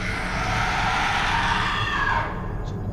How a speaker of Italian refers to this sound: Grida di odio.